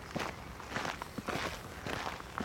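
Quick footsteps of a person nearly running along a path, a rapid, fairly regular crunching patter of several steps with a faint rustle, no voices.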